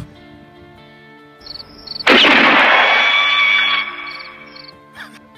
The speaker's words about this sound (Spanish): A mí me parece demasiado chistoso cuando en las películas o en la vida real es, es muy chistoso cuando alguien le va el sombrero de un balazo.